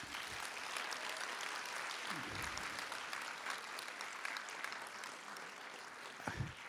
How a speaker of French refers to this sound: qui a été l'opérateur d'Alain René, non pas pour Hiroshima mon amour, il était trop petit, Renato, mais pour, par exemple, on connaît la chanson ou Smoking, no smoking, vous pouvez l'applaudir, Renato Berta.